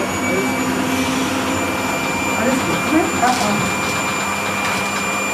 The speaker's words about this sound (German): So, also jetzt haben sie ähm, den Blower angeworfen. Das ist wie, wie ein riesiger Föhn. Also eher wie ein Staubsauger. Und der wird jetzt hinten einfach angesetzt und einfach ins Fell reingepustet.